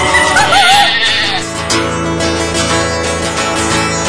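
A sheep gives a single wavering, quavering bleat near the start, fairly loud, then falls quiet while a steady, humming musical backdrop carries on underneath.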